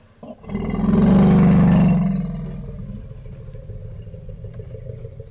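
A deep, growling elephant rumble, made to communicate with other elephants, swells loudly for about two seconds, then fades into a low, steady murmur with faint background noise.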